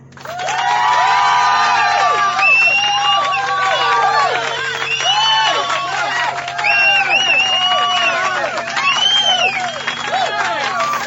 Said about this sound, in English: Thank you, thank you. But you could have held that applause till later, till you, you heard what I had to say.